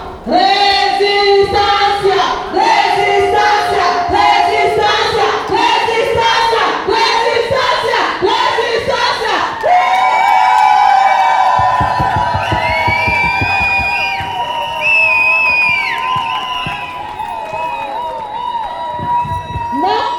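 A crowd of about 150 people on a feminist demonstration march through Kreuzberg, Berlin, chanting slogans in loud, rhythmic unison, then the chanting gives way to a noisier mix of voices, whistles and shouts that carries on to the end.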